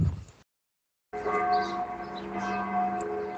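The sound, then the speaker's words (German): Church bells ring out at 9 a.m. in Wedding in a sustained, resonant peal with layered overlapping tones after a brief silence, with no voices over them. “Die Kirchen leiten schon mal, läuten schon mal den Pokaltag ein.”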